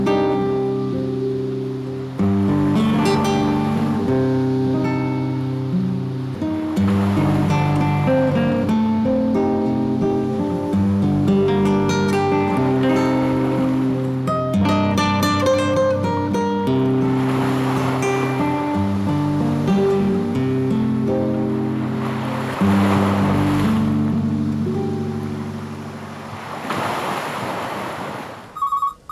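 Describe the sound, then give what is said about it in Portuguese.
Ocean waves surge and wash onto a sandy beach every few seconds, broad hissing swells rising and falling beneath steady, sustained musical tones, with no voices present. “Levanta-se. Sai. Andando em direção ao mar.”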